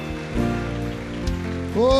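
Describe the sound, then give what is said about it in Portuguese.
A church audience gives a round of applause to God in a dense, steady wash of clapping, with sustained keyboard chords ringing underneath. The clapping swells louder toward the end. “Vamos dar uma salva de palmas ao nosso Deus e dizer obrigado.”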